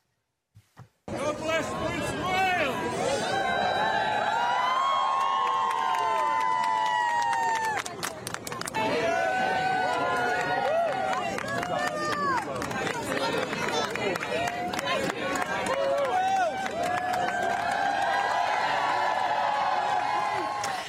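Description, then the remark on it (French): A large crowd cheers and shouts continuously during King Charles III's walkabout, with many overlapping voices rising and falling, scattered sharp claps and clicks, and a steady roar of excited babble throughout. “On a vu euh, le bain de foule du roi Charles III.”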